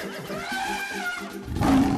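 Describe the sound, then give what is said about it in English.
A horse neighs loudly, a long wavering whinny with a rough, breathy rumble near the end. No one speaks. “Sounds like it's time for me to take care of the animals.”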